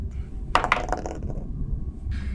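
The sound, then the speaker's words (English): Dice clatter onto a tabletop during a wisdom check in a tabletop role-playing game, a couple of sharp clicks followed by a brief rattling tumble, fairly loud, then quiet background noise with no talking. “Okay, I'm going to use different dice.”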